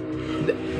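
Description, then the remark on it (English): A steady engine drone with a low, rumbling tone holds throughout, a motorcycle going by outside, with a brief louder swell midway. “That's so that was a motorcycle, which I'm oh, sorry.”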